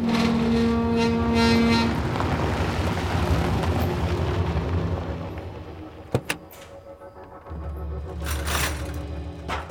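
A grey ambulance drives in through gates late at night with a steady engine rumble and rough tyre noise over cobblestones, slowing to a stop. A couple of sharp mechanical clicks follow, then the engine idles.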